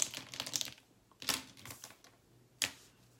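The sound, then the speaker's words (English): A separate sheet of paper used for keeping notes rustles and crinkles in a few quick, crisp bursts separated by short pauses, with no voices present. “i'm trying to keep notes i had my paper somewhere oh there it is I have a separate sheet of paper to keep notes on things that I say.”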